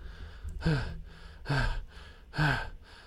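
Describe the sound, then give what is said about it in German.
Three heavy, ragged breaths in steady succession, each a loud, voiced gasp that trails off like someone panting after great exertion, with no talking. “Und die Tiefling-Dame atmet schwer und äh, als hätte sie gerade eine große Anstrengung vollbracht.”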